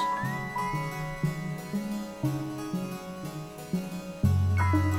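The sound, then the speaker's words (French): Bouncy electronic music with plucked, harpsichord-like notes, topped by high synthetic whistles and gliding chirps that mimic birdsong, steady and moderately loud, with no voices. “Vous entendez des notes de clavecin, les oiseaux électroniques”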